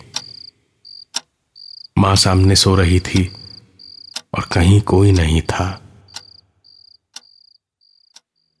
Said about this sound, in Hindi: उसके बाद सब कुछ एक पल में शांत हो गया कहीं कोई आवाज नहीं थी सिवाय झिंगरों की और घड़ी की टिक टिक के